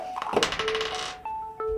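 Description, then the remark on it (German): A die is rolled again across a hard table surface during a game, clattering and tumbling in a quick burst of rattling knocks, then settles showing a two, followed by a couple of brief tonal pings. “Bitte einmal nochmal würfeln.”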